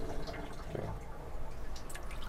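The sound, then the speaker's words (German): Water runs steadily from a small pump-fed hand-washing tap into a basin, a continuous trickle and splash with a few brighter drips toward the end. It is fresh water, and a separate grey-water tank underneath catches it. No voices. “Wasserpumpe. Ja. Da ist ein eigener Grauwasserbehälter drunter, okay. der das auffängt, das Wasser.”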